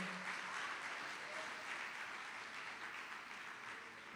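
A church audience claps steadily for several seconds, praising the Lord, a dense, sustained wash of applause, with a few faint voices mixed in.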